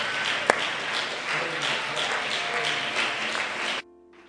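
A crowd claps steadily for several seconds, a dense wash of hand clapping with a sharp tap near the start, then it cuts off abruptly, leaving a faint hum.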